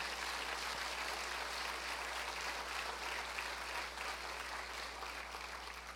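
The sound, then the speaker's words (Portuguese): An audience applauds the Lord steadily for several seconds during worship, a dense, continuous wash of many hands with no voices standing out, holding a fairly even level throughout. “Aplauda ao Senhor, Ele é digno.”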